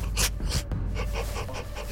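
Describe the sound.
A person imitates police dogs panting outside a door, producing a run of quick, breathy huffs in a steady rhythm, fairly loud with no other talking.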